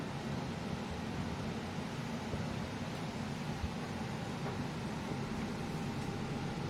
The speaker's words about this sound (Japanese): バスの音は結構入っちゃうかな